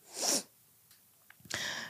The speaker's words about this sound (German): Ich muss husten.